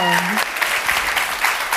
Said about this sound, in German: Applaus für